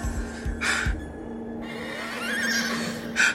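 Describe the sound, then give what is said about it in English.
A white winged horse, flying, neighs twice in loud, bright bursts, with a fainter rising whinny between them, over a steady low hum and a few soft thumps like hoofbeats near the start. “There's the white horse. It's flying.”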